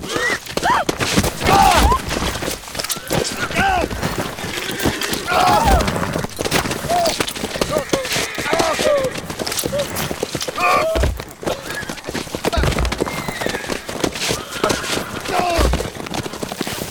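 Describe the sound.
Restless horses stamp and clatter their hooves in uneven bursts while occasional high whinnies rise above the commotion, with shouting voices mixed in throughout.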